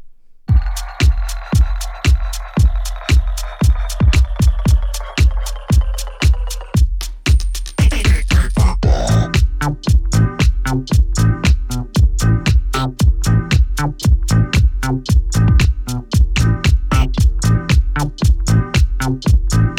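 A song plays loud, driven by a steady pounding beat under sustained synth tones. About eight seconds in, the texture shifts and becomes denser and busier.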